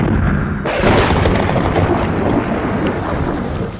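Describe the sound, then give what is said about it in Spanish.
A heavy rainstorm roars loud and steady, dense rain hissing across the whole clip with a deep rumbling undertone like thunder, no voices present. “Una vez que entraron los animales en parejas y los ocho integrantes de la familia de Noé, Dios cerró la puerta y se desató la lluvia más fuerte que ha existido.”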